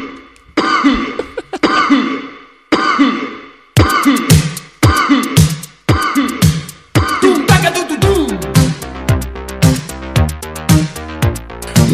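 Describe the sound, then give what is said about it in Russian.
A track built from coughs: loud, sharp coughing bursts repeat in a steady beat, then a dense electronic pattern joins and the rhythm speeds into a layered, musical groove. “Да, да, как обычно, ритм в виде кашля, да.”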